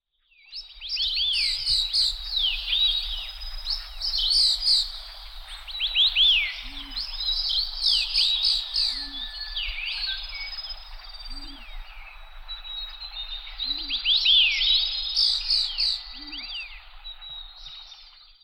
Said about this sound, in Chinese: 这里应该就是太平山。其实，呃，这段声音就是呃，大部分的人听起来就说鸟叫声， 对，就是鸟啊，有什么？ 可是你可能没有听到，这里面有很多种鸟，是道道地地台湾特有种的鸟。也就是说，这种鸟只有在台湾才有。